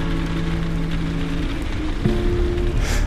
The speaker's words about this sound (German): Stellt euch einfach mal vor, ihr wärt in einer einsamen Hütte Vielleicht ganz oben im Norden, in Norwegen. Das Wetter ist ganz sicher stürmisch. Der Regen prasselt gegen die Fensterscheiben. Der Wind heult durch die Balken.